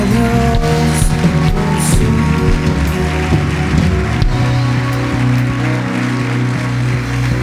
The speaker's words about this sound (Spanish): Y va a aplaudir, aplauda fuerte al Señor.